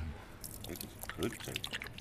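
A pit bull mix dog named Lobo laps water from a hand, a quick run of wet, splashy slurps and licks, fairly soft, with faint background murmur.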